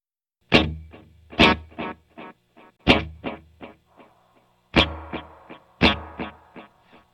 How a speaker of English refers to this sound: So first I'll have the echo, and then I'll roll in some of the reverb. And that, of course, was that in the multi-head thing is one of the things that made it a space echo.